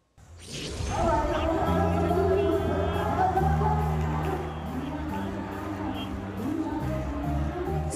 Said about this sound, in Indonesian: Seperti inilah suasana ribuan pengunjung yang memadati gedung Istora Senayan saat penyelenggaraan festival musik pada hari kedua.